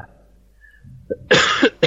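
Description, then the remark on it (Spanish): A person coughs hard after something goes down the wrong way: a small throaty catch, then a loud, rough cough and a second sharp one right after, with no talking. “Ay, se me ha ido por el otro le ha salido toda la carraspera ya.”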